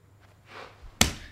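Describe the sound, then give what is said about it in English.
A woman slaps her knee once, a sharp, loud smack after a brief soft swish of movement, with no talking. “just slapped her knee.”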